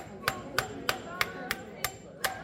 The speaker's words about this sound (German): Das besonders robuste Handy-Display aus Gorilla-Glas zerbirst unter den Hieben des jungen Zimmerers.